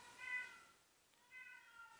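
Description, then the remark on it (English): A cat meows twice, each call drawn out and tonal, with a short pause between them. The meows are fairly quiet, with no talking. “I'm not kicking your fucking cat.”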